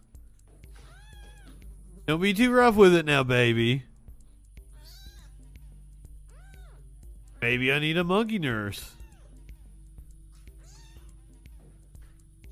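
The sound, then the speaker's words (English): Two loud, drawn-out kitten meows, each lasting about two seconds, rise and fall in pitch with a pause between them, as a monkey carries a kitten around, while a person talks quietly in the background. “Oh, the monkey's carrying the kitten around.”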